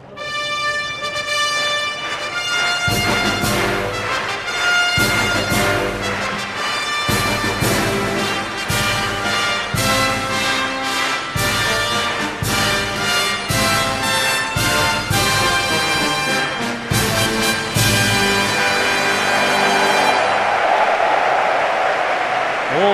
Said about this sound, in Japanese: スターターが台につきました5週連続 G1 東京競馬場2週目ビクトリアマイルファンファーレです